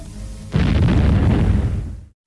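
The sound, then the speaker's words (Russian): A single loud cannon blast, the first warning shot, fired with an explosive shell from the first port-side gun, erupts suddenly: a deep booming explosion with a broad roar that rumbles on for over a second before cutting off, with no voices. “Прикажите дать первый предупредительный.”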